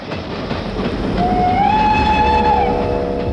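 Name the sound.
passing train with whistle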